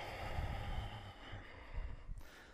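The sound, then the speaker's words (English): A long, breathy exhale pushed out through the nose or mouth during a guided yoga class, soft and airy, over a faint low rumble of room noise, with no talking. “So I was saying the sound of your breath is a great contribution to the listening in the room.”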